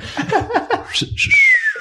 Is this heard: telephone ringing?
no